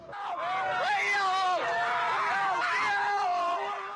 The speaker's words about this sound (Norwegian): Men ropene blir til skrik. Knusemekanismen som presser søppelet sammen, starter plutselig. To av mennene hopper ut. Den tredje klarer det ikke.